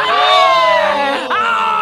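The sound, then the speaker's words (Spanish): A single voice mimics a crowd's excited exclamation: a loud, sustained rising-and-falling "ooooh" that dips briefly, then swells again, held for nearly two seconds. “El público se avienta una exclamación de esas de emoción, güera.”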